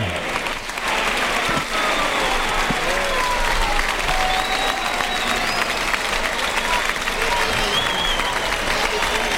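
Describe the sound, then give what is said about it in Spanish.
A large bullring crowd applauds steadily and loudly for the whole stretch, a dense sustained roar of clapping with scattered shouts and whistles, petitioning for a trophy for the matador Emilio de Justo. “Y como oyen la petición ya absoluta.”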